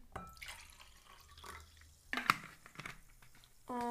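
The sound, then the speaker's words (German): Water is poured from an old SodaStream bottle into a glass, a few seconds of splashing and gurgling with a brief clink partway through. “Oh, das ist die alteste Soda-Stream-Flasche, die wir haben.”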